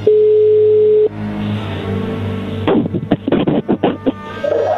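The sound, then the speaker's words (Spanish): A phone call being dialed again: a steady electronic phone tone holds for about a second, then a low hum continues before a quick series of short beeps, like a number being dialed on a phone line. “Ahí se está marcando otra vez.”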